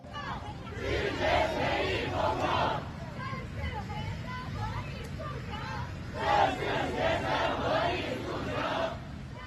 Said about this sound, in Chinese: 十二月十日，一段视频显示，重庆医科大学的学生在校门口聚集抗议，要求正视学生合理诉求。